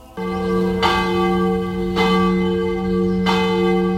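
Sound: church bells ringing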